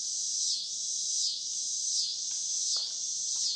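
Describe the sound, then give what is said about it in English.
A steady, loud insect drone of cicadas outside a window, buzzing in a high, pulsing whine that swells slightly about every three-quarters of a second, with a few faint chirps breaking through. “Oh, the cicadas outside my window that have been deciding to just Is that legit cicadas?”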